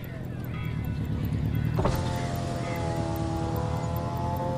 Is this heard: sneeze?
no